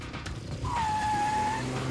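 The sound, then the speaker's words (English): A Ferrari's engine starts up in the distance with a low, steady rumble, and a thin, sustained whine rises over it partway through and holds briefly. No one speaks. “The Dominion operatives are unaware of her activity, but they hear the car start in the distance.”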